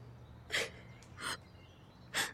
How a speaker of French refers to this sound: Vous pleurez. Vous pleurez. Mais non, je ne pleure pas. Je, ne pleure pas. Si, si, vous pleurez. Je vous entends pleurer.